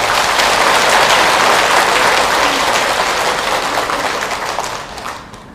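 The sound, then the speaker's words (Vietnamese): A crowd bursts into loud, sustained applause, a dense crackle of many hands clapping that holds steady for several seconds before thinning out and fading at the end. “nếu quý vị thấy được như thế thì hãy dâng câu trong pháo tay thật lớn để à, cam kết lại”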